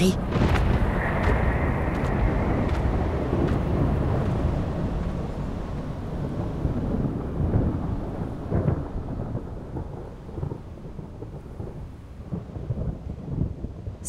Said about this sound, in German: Gewitter hört zum Glück bald auf. Es ist wieder friedlich und freundlich im Wald.